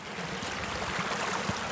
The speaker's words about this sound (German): Der Bach sprudelt mal kaskadenartig über Felsstufen